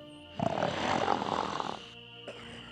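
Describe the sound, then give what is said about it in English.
A single deep, rumbling snore from a huge Chenoo creature asleep before the entrance to a wigwam at night, a long rough rasping breath lasting over a second, loud, followed by a faint wheezing exhale. “Soon it was fast asleep, snoring before the entrance to the wigwam.”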